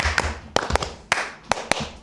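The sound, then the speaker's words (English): Several sharp hand claps in an uneven rhythmic pattern, some in quick pairs, fairly loud, with a faint background hiss between them and no talking. “Hey, you guys didn't do it right. That's the wrong clap.”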